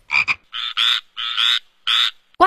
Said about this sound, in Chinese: 呱，呱，呱！这么多好吃的，青蛙好开心呀，好像在开派对呀。